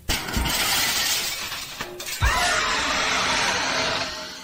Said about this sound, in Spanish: Se cayó un espejo que se hizo mil pedazos.